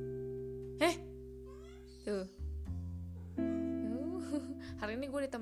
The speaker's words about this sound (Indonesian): ini ada kucing gue nih sini sini